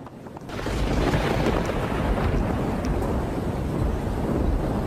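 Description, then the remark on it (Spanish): A thunderstorm during the 2017 coastal El Niño, in the city of Caraz, Ancash, roars with heavy rain and gusting wind, a dense, constant low rumble that swells in after a quieter first half-second and stays loud throughout, with no voices. “Esta tormenta no es de una película de terror, es el presagio de lo que sucedería en la ciudad de Caraz.”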